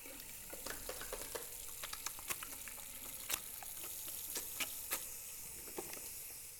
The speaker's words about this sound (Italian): I piedi sciabattano negli zoccoli troppo grandi e le mani si spaccano tra la lisciva che corrode e l'acqua che scotta ad ogni sfregamento nel mastello.